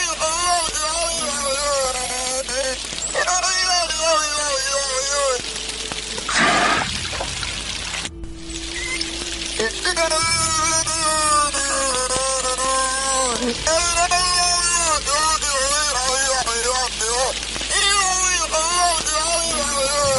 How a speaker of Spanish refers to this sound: Ese último sonido, un sonido realmente mágico y maravilloso que queremos rescatar una vez más aquí en Nueva Dimensión. Esa ballena que aparentemente intenta hablar como un ser humano. Lo escuchamos.